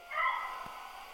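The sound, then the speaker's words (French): A single short, high-pitched dog bark rings out, somewhat faint, followed by a quiet background hum with no one speaking. “Bah, il y a un chien, quoi.”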